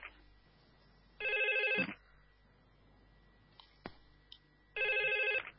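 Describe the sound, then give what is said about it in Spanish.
A telephone rings twice, each burst a loud, steady electronic trill lasting under a second, separated by a pause filled with faint background noise and a couple of small clicks. “era un llamado que estaba esperando.”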